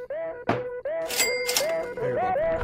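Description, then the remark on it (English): Glasses clink together in a toast to the new year, giving a couple of bright, ringing taps. A duller thunk comes just before, and a steady, wavering tonal hum runs underneath throughout. “cheers for that, and uh, we'll end it here with a little little clink.”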